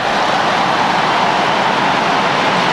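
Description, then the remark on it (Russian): A huge stadium crowd jeers and whistles at goalkeeper Guilherme as he catches the ball in a high jump, a dense, loud, continuous roar of disapproval with no clear voices standing out. “Ну, вы слышите прекрасно, да, это вот все в адрес Гильерме, поскольку он в высоком прыжке мяч э, в руки забирает.”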